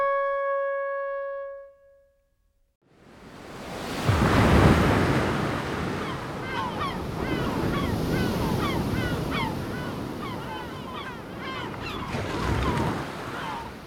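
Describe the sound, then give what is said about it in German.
A short steady tone and a moment of silence give way to loud North Sea surf rushing and breaking on a beach on Sylt, with seabirds calling repeatedly over the roar of the waves. “Ich stehe an der Nordsee auf Sylt.”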